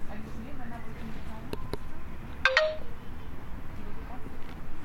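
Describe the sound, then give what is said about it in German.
A smart white cane gives a short, bright electronic navigation notification chime in place of a spoken instruction, a quick rising tone lasting a fraction of a second, over steady background noise, preceded by a couple of soft clicks. “es macht dann immer nur Bling”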